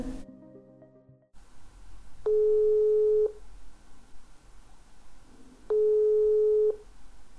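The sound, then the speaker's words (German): A phone line rings out twice while an outgoing call to Benjamin Winkler of the Amadeo Antonio Stiftung in Leipzig connects: two steady, evenly pitched tones, each lasting about a second, separated by a pause of a few seconds, with no voices. “Wir telefonieren mit Benjamin Winkler aus Leipzig.”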